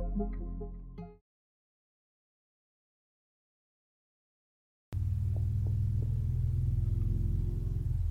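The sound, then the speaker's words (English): After a stretch of silence, a deep, steady engine rumble swells in and holds as the neighbors' motorcycles set off riding, loud and throbbing in the low end. “Why do all my motorcycle riding neighbors decide to go ride right now?”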